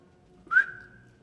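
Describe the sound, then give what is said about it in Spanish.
A single short whistle, a clear rising note that swoops up then holds steady and fades over about half a second, heard alone against a faint low background. “pues está en su habitación y sintió que alguien silbó.”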